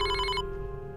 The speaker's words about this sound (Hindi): इसी बीच उसका फ़ोन मेरे पास दोबारा से आया